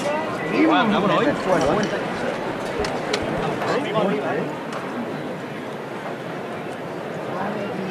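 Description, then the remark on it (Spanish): A few sharp raps of a capataz's knocker striking a procession float ring out over a dense, murmuring crowd, with people talking throughout. “Pero vuelve a sonar el martillo.”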